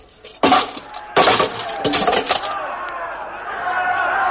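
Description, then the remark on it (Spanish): An empty steel suit of armor shudders slightly and breaks into pieces onto the floor: several loud, clanging crashes in quick succession as pieces clatter down, trailing off into a lingering metallic ring. “Cuando pasado ya el primer momento de terror quisieron tocarle, la armadura se estremeció ligeramente y descomponiéndose en piezas cayó al suelo con un ruido sordo y extraño.”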